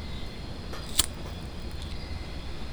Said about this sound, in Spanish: El sonido de un encendedor.